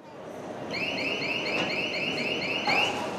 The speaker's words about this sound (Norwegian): Og i neste nominerte så går alarmen.